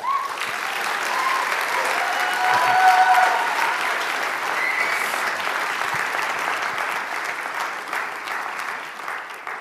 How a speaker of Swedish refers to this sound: Så varsågod, ge dem en stor applåd.